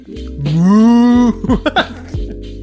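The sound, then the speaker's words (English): A person vocally imitates a dolphin call: a long, loud, rising moo-like tone followed by a few short choppy voiced bursts, with no other sounds. “I think there's such thing as like a sea cow. I think that's some, some kind of mammal. But you're that's not what a dolphin is.”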